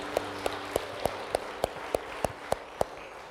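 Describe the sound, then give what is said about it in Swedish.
An audience at a worship service applauds for their Lord and saviour Jesus Christ: steady, rhythmic clapping, about ten sharp claps at an even beat of roughly three per second, over a soft background hiss, with no one talking. “Kan vi inte ge en applåd till vår Herre och frälsare?”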